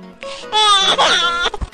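A baby cries: a short fretful whimper builds into one loud, high, sustained wail that wavers in pitch, then breaks off into a couple of quick catching sobs.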